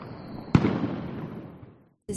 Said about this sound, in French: quand je suis arrivé, j'ai découvert les traditions, comme par exemple les faillasses, qui consistent à faire péter les pétards.